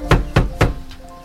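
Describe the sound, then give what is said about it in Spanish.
Three loud, heavy knocks on a door in quick, evenly spaced succession, forceful, followed by a fainter fourth tap as the sound dies away; someone is knocking to demand entry to search the home under a royal order. “¡Abra la puerta, Mariana! Sabemos que está usted dentro.”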